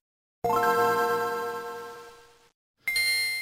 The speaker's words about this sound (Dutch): En we hadden ook een eh, tweede geluid in onze laatste aflevering van vorig jaar. En dat was het geluid dat je hoort als je de Game Boy Advance aanzet.